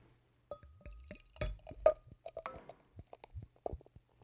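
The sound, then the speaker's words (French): Beer from Château La Pompe in Lockport, USA, being poured into a glass, with a run of gurgling glugs and drips, a few light clinks, and a brief fizzing hiss of foam partway through; no one speaks. “Ça mousse bien.”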